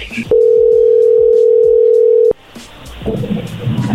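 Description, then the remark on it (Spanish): A single steady telephone ringback tone of an outgoing call holds for about two seconds, a loud, even mid-pitched hum, then cuts off abruptly into faint line noise and muffled background sound. “Vamos a hablarle otra vez.”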